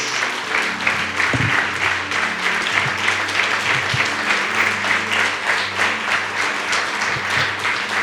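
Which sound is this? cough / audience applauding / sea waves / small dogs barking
audience applauding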